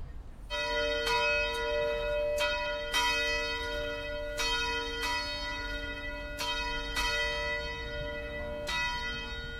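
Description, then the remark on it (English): A large town bell rings out repeatedly in the morning at a slow, uneven pace, each strike leaving rich, sustained overtones that hang and overlap, with a steady low rumble of background noise beneath and no voices. “town bell is rung, and the populace of Arcadia Farms, a company town in between the capital city of Chazal and the intellectual district of Lemeret”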